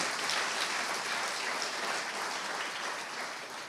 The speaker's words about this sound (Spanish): Se lo merece, denle un aplauso fuerte.